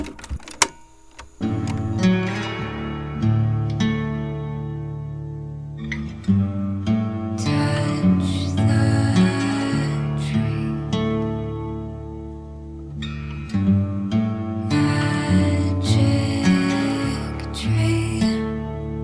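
Ambient drone music fades in after a brief hush: layered, sustained tones hold steady and swell in dense waves of shimmering texture, fairly loud and continuous, with no voices.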